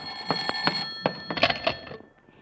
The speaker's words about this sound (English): Will you get that phone, please, Mrs. Davis? I can't seem to find my hat.